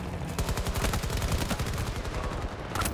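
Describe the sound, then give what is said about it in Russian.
Video game anti-aircraft gunfire: a loud, unbroken stream of rapid automatic shots hammering away for the full three seconds, with deep thuds under sharp cracks and no voices. “Так, это у меня Ой. для того, чтобы сбивать самолетики.”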